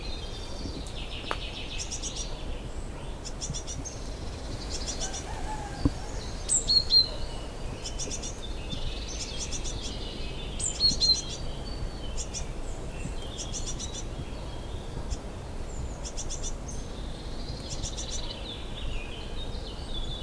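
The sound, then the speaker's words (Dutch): Young birds chirp in quick, repeated bursts of thin, high calls while their parents fly back and forth feeding them, fairly faint and steady throughout, with an occasional sharper note standing out over a soft outdoor hiss; nobody speaks. “Maar ik ga wel mijn afstand bewaren, want de eh, mama en papa, zal ik zeggen, zijn de hele tijd heen en weer aan het vliegen om ze eten te geven.”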